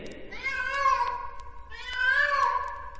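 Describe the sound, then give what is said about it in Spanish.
A shaggy cat meows twice, two drawn-out, wavering cries about a second each with a short pause between, fairly loud with nothing else around them. “este gato matón cascarrabias y greñudo que se llama Bigotazos”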